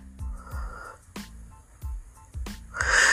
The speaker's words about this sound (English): My dog is, of course, snoring in the background.